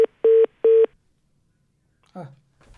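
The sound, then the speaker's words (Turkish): Three loud, steady electronic telephone tones in quick succession, like keypad dialing, as a phone call is reconnected, followed by silence and then a brief burst of a voice speaking. “Evet ufak bir aksaklık oldu.”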